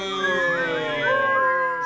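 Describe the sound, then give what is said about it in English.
A crowd whistles, several shrill tones overlapping and sliding up and down in pitch, a steady dense blur of whistles lasting a couple of seconds at moderate loudness with no talking. “Fischiate.”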